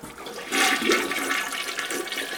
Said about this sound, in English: You go to the toilet, uh, you do your business, you do your one, you do your number two, flush the toilet,